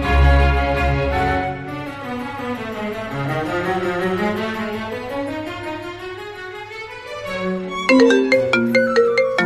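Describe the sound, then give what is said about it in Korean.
A melodic electronic phone ringtone plays loudly on its own as a friend phones around to other friends, its sweeping synth tones giving way to a quick, repeating rhythmic pattern near the end. No voices are heard. “제가 말 안 했더니 다른 친구들한테 전화를 돌렸더라고요.”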